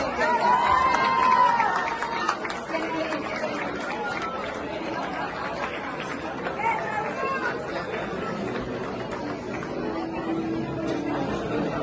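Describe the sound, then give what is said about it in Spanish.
A crowd applauds and cheers steadily for about twelve seconds, a dense wash of clapping and voices with a couple of brief whistles near the start, applauding entertainment journalist Gustavo Adolfo Infante, who is receiving an award. “Quiero pedir un fuerte, fuerte aplauso para Gustavo Adolfo Infante.”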